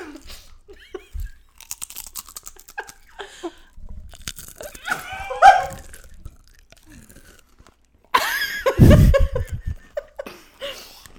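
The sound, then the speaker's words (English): Crunching of organic yellow corn tortilla chips from Trader Joe's, with several sharp bites and chews followed by a loud burst of crackling near the end, alongside brief laughter and chuckling. “Salty and delicious. Crunchy, crunchy, crunchy.”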